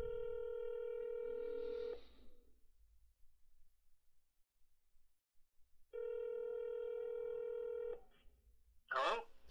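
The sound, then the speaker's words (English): Telephone tones as a number is dialed: two long, steady electronic beeps, each about two seconds, separated by a pause, followed by a short crackle of line noise. “let me let me see if I can get you on the line, Johnny boy. I got your number right here.”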